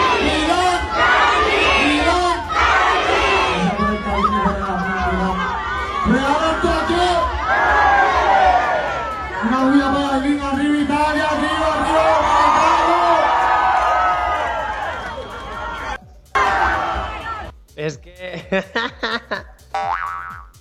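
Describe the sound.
A large crowd shouts together in loud, overlapping voices, like a chant answered back at a concert, sustained for several seconds before breaking into scattered cheers and noise.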